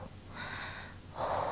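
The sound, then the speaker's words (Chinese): A voice imitates an old grandmother snoring with two breathy, hissing exhales, a softer drawn-out one followed by a louder, rougher puff of air. There are no spoken words. “那张床上有一位老奶奶，打鼾的老奶奶。”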